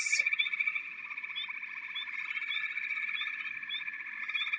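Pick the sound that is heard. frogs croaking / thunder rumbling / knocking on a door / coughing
frogs croaking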